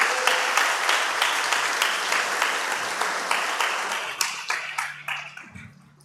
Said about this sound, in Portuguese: Dê uma linda salva de palmas, amém.